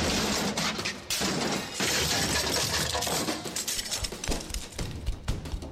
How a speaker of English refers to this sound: Then I smashed out his security console and PC.